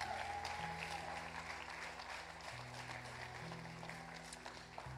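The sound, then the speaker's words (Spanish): A crowd applauds steadily for the full length, welcoming a person attending their third Sunday; dense overlapping claps form a continuous roar at moderate loudness, with a faint low hum beneath and no speech. “Tu tercer domingo, tu tercer, un aplauso por favor, su tercer domingo.”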